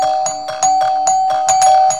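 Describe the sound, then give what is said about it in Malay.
A house doorbell rings continuously for about two seconds, a steady electronic tone pulsing in quick, regular bursts, fairly loud, with no voices. “Loceng rumahnya berbunyi”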